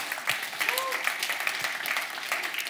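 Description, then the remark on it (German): An audience claps steadily, a dense patter of many hands at an even level throughout, with faint voices murmuring underneath. “Da kann man klatschen, definitiv.”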